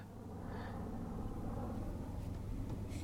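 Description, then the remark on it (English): A deep, steady rumbling roar of a computer-generated aeroplane in a film, low and continuous like thunder, holding at a constant moderate level throughout with no voices. “Uh, the aeroplane, uh, as I'm sure you have guessed, wasn't really there. Um, that's a CGI aeroplane”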